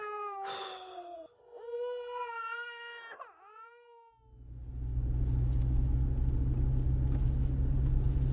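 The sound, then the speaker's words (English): A teething baby girl wails inside a car in several rising and falling cries for a few seconds, then a loud, steady car engine rumble starts up and continues to the end. “Can you please make her stop crying?”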